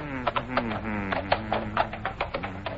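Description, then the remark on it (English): Horses carrying two men walk down a slope toward a shallow creek at dusk on the western plains, hooves clopping at a slow, steady walking rhythm, a string of moderately loud knocks over a continuous low, tonal background hum. “A blanket of quiet lays over the desolate wastelands, disturbed only by the sound of horses carrying two lean men down the slope toward a shallow creek.”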